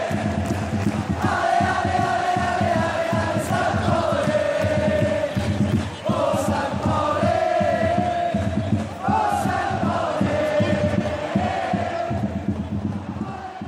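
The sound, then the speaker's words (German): A dense stadium crowd fills the whole stretch with a steady roar of murmuring voices, rising now and then into louder swells of shouting and chanting, with no single voice standing out. “Aus den sich unterhaltenen Zuschauern im Stadion verdichtet sich wie in einer Ursuppe das Rauschen, Raunen, Schreien, Krakeelen, Jubeln, laute Murmeln zu einer Weise, meist einer bekannten Weise, einem Lied, einer Zeile aus einem Schlager”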